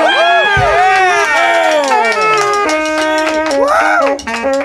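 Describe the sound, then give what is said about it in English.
A loud crowd cheers and whoops continuously for a band's saxophone player as he is introduced, many voices overlapping in rising and falling shouts, with a few sharper yells standing out near the end. “Let's hear it for the guy.”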